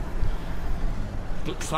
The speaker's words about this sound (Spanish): Oye, todavía se oyen los carros, ya nos metimos, estúpidos.